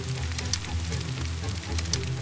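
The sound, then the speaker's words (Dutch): A steady wash of heavy rain pours down without letup in the Netherlands in the summer of 1941. It is loud, with a low rumble underneath and sharper splashing spatters now and then. No voices are heard. “Het regent heel hard.”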